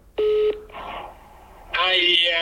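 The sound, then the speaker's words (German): A phone call ringing through: a single steady electronic phone tone sounds briefly, followed by a faint hiss on the line, then a voice comes through the phone speaking. “Das ist wie dir, warte jetzt, entweder nimmt er ab, dann ist blöd und sonst hörst du dann seine, seine Combox.”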